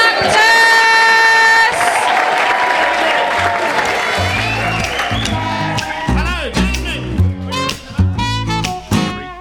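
An Edinburgh crowd applauds and cheers loudly to welcome a performing act, with sustained clapping and whoops near the start, while a thumping, rhythmic backing gradually joins in underneath the fading ovation.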